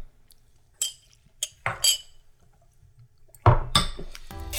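Glasses clink together several times in a toast after drinking shots, bright short chimes, followed by a louder clatter and a brief burst of noisy handling at the end.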